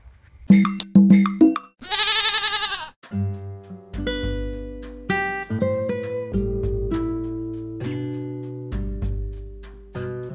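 A few quick cowbell clanks, then one loud, wavering goat bleat, followed by a run of ringing, bell-like tones and low notes for several seconds, with no talking.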